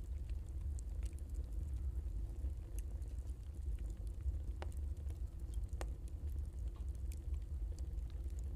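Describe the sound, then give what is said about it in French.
A steady, deep roar of a boiler furnace fills the space, like a bakery oven running, with sparse sharp crackles and ticks popping over the constant low rumble. “Voilà, ce son de, de chaudière, de fournil même.”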